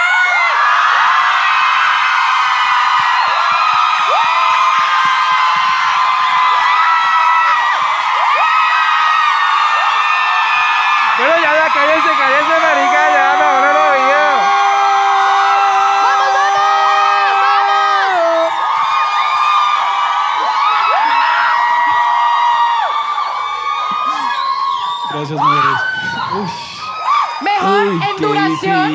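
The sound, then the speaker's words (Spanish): A crowd of women cheers loudly and continuously, a dense wall of high-pitched screams, whoops and shrieks sustained for nearly half a minute with wavering shouted tones rising above the din, making noise on a count of three. “Vamos por esa bulla con las mujeres. Vamos a hacer una bulla que se escuche hasta en su hijo puta.”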